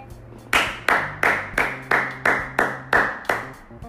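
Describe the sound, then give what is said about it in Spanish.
A steady run of nine sharp hand claps at an even, moderate pace, each one crisp and bright with a quick decay, standing alone over a faint low hum. “Y si hoy es un día así, este episodio es simplemente para, para aplaudirte.”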